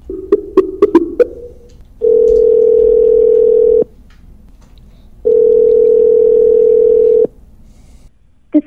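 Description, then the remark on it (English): A quick run of short telephone dialing beeps as a prank phone call is placed, then two long, steady telephone tones separated by a pause, loud as if heard through the handset, with no talking. “And uh, here is uh, a, a real live prank phone call for your enjoyment.”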